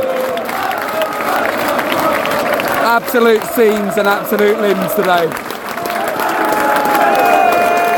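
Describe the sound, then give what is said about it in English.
Away fans at the Emirates Stadium in London applaud and cheer in a steady, loud wash of clapping and voices after a win, as the players greet them and give out their shirts and Graham Potter applauds them. A man talks excitedly over the noise. “Potter's applauding the fans and the support”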